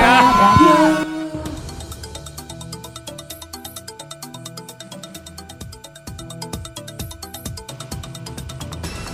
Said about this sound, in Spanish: Teléfono.